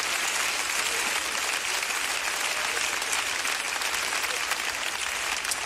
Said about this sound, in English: Why don't you give the Lord a hand clap of praise before you're seated this morning?